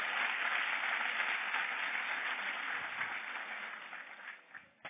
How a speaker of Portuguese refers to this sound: Posso ouvir um glória a Deus? Essa mulher, pode aplaudir o Senhor por ela.